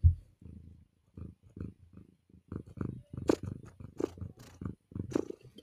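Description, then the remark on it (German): A pet cat purrs loudly, a steady rumbling drone pulsing in short rhythmic bursts with no one speaking. “Das ist eine Katze von mir, also.”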